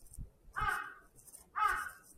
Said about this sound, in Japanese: カラス、カラス、カラス、カラス。